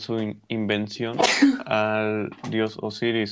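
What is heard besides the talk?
sneeze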